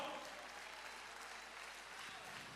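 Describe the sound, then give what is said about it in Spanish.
A church audience applauds the Lord steadily, a dense, continuous wash of clapping that holds an even loudness throughout, with faint voices mixed into the noise. “Dale tu mejor aplauso al Señor.”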